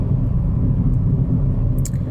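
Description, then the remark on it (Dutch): Steady low rumble of a car's interior while driving home from a vehicle inspection station, a dense, constant road and engine drone, with a brief faint high tick near the end. “Ik zat net in de auto, of ik zit in de auto. En ehm, onderweg van het keuringstation naar huis.”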